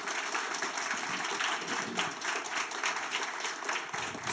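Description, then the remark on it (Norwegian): Sustained audience applause for a panel after a library debate, a dense steady patter of many hands clapping at moderate volume for several seconds with no voices over it. “En applaus til panelet.”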